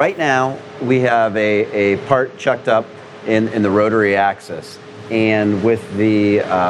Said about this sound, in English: again, please pardon the background noise from the laser welding shop.